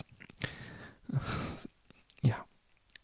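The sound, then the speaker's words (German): A single muffled sneeze, with a breathy drawn-in breath before the sharp burst. It is fairly quiet, with soft breathing noises around it and no clear speech. “Gesundheit.”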